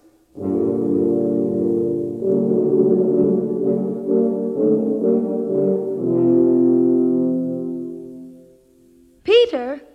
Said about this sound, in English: The Wolf by Three Horns.